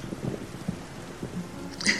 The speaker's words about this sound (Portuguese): Ela se sentou debaixo da árvore e um raio anunciou uma forte chuva que começou a cair.